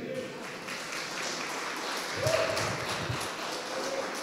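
A church audience applauds a pastor in a steady, dense wash of clapping that swells slightly midway, with a faint tonal hum and some murmuring beneath.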